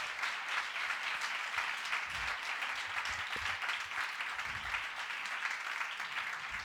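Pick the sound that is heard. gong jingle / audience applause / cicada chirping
audience applause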